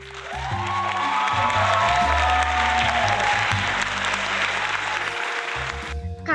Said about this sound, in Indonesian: penasaran nggak sama bintang tamunya ini orangnya nggak kaleng-kaleng nih udah ngikutin lomba sampai tingkat nasional tepuk tangan teman-teman